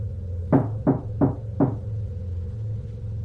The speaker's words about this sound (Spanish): Me disponía a acostarme cuando escuché que tocaban a la puerta. Pensé que era mi vecino o algún repartidor confundiéndose de número, pero al ver por el ojal de la puerta no había nadie.